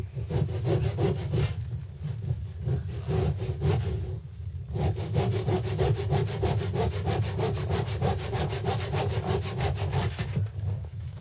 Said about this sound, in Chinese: 对，他在切的是一个英式 muffin 啊，我们当时在野外已经宿营了两天。然后要把它切开，因为它带的那个烤这个英式 muffin 的东西呢，你是要把它切开才能放进去的。